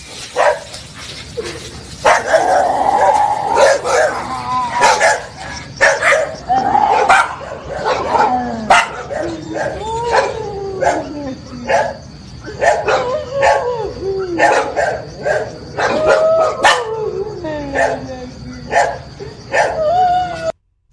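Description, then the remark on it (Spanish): Several dogs bark and yip in frequent, overlapping bursts, with some whining, heard through a slightly noisy recording with a steady high-pitched hum in the background. “Ahí están los perros.”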